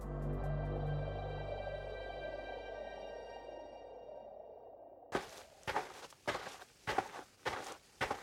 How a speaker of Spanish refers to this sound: Yo cuando camino escucho el sonido de mis pisadas. Estas pisadas pues tienen información sobre el peso de mi cuerpo.